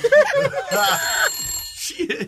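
A telephone rings with a bright, steady electronic tone, fairly loud, while people talk over and around it.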